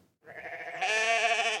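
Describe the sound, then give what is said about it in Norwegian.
A goat, one of those set out to graze down scrub in ski terrain in Nordmøre and Romsdal, Norway, bleats loudly, a single sustained, wavering cry that swells in intensity partway through, with no talking. “Dette er lyden av krattkrigerne til Visit Nordvest.”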